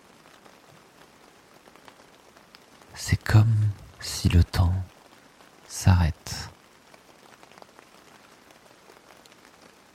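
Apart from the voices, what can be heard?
rain falling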